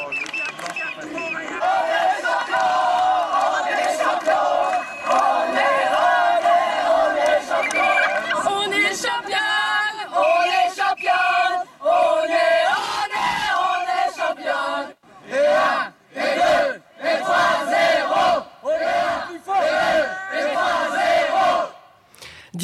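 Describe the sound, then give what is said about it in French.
A huge crowd cheers and shouts in celebration in the streets of Paris in 1998, a loud continuous roar of many happy voices that later breaks into rhythmic bursts of chanting separated by brief pauses. “1998, c'est sans doute un souvenir euh, marquant et surtout symbolique euh, dans beaucoup de mémoires, un raz-de-marée d'humains heureux qui envahissent les rues.”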